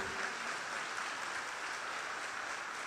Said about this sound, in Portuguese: Pode aplaudir, a honra é para ele.